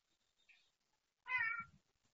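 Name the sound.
cat meowing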